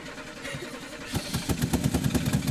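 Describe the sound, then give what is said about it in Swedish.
A V8 car engine cranks and fires up, settling into a loud, rhythmic chugging rumble after a quieter first second, with no talking. “Får höra på V8 här.”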